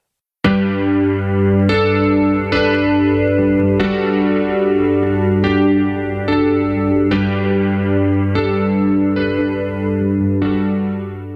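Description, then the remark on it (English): A chart-topping pop cover song recorded in 1988 plays: mellow, chorus-laden keyboard chords struck at a slow, steady pace, each ringing out warmly over a low sustained bass, with no vocals in this stretch. “a chart topping cover he recorded in 1988.”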